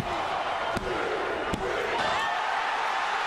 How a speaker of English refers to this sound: Munn dropped Lewis from a great height with an almighty slam to pick up a three count and the first fall in their match.